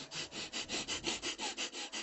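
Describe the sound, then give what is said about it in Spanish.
Rapid, rhythmic breathing demonstrated: about eleven short, airy puffs in quick succession, evenly spaced and fairly soft, with no talking over them. “Y son las respiraciones. Una respiración rápida, tipo...”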